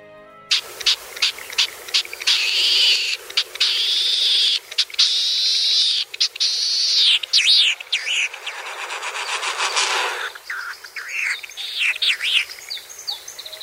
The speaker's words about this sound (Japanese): 実はこれ王子ジシギという鳥の声と羽音なのです細くしわがれた絞り出すような声で鳴きそれに続くザザザザーという迫力のある音は上空高いところから真っ逆さまに急降下する王子主義が尾羽を震わせ出していますディスプレイフライトと呼ばれ繁殖期だけに見せる飛び方です